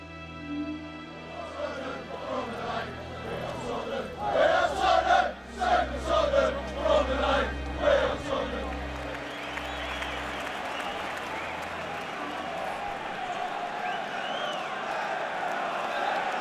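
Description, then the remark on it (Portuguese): A large crowd of about 5,000 Tottenham fans chants at Arsenal's Emirates Stadium in the North London derby, a League Cup match, at the start of the game, with loud rhythmic bursts of voices and clapping in the middle, then a steady roar of crowd noise. “Estou ao lado da torcida do Tottenham no momento, comecinho do jogo.”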